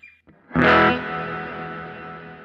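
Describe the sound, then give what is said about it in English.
A single distorted electric guitar chord strikes loudly and then rings out in a long, washy reverb tail that slowly fades, with no voices present. “this nice sounding reverb.”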